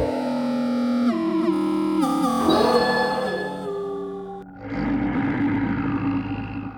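A loud, bear-like roar rumbles, growling and distorted with wavering pitch, briefly dropping off before surging back into a deep, rough snarl. It is not a bear but a person's stomach ulcer. No one speaks.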